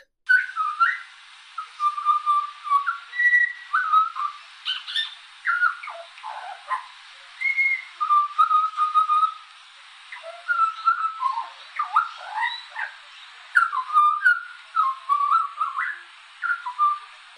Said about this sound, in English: And if you've ever heard the song of a butcherbird, which is also rather melodic,